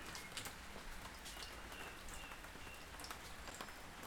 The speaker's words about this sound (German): Hörst du das? Dach, der Regen.